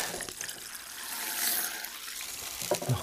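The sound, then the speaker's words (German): Wet scooping and splashing as sand is taken by hand from a sack and dropped into water, a steady sloshing with a few sharper splashes near the end, no voices. “Ich nehme den Sand einfach mit den Händen raus. Ab ins Wasser damit”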